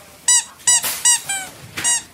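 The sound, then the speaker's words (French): A squeaky dog toy squeaks five times in quick, uneven succession, each squeak a bright, high-pitched tone with rich overtones, fairly loud with no voices. “Euh, c'est beau, vous, pouvez mettre dans le sac le jouet pour chien.”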